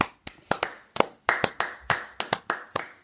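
Hand clapping: about a dozen sharp, bright claps in an uneven rhythm, some in quick pairs, fairly loud, with no talking.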